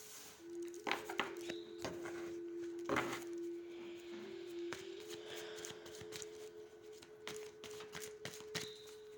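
Angel cards being shuffled and drawn during a card reading about a partner: a quiet run of papery flicks and soft taps, irregular and clustered, over a steady low hum, with no voices.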